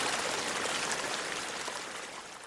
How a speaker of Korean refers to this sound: 정답은 바로 지금 들었던 2번. 2번. 다시 한번 들어보겠습니다. 2번 이 소리가 지리산 뱀사골 물소리였고요.